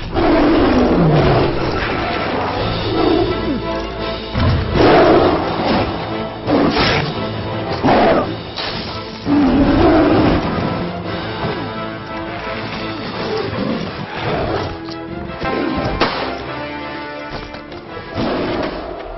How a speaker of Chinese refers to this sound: 同样，咱们那个国产的故事片，徐克那个《智取威虎山》里边不有一段那个张涵予演的杨子荣上山，老虎跟他在树上打斗那段吗？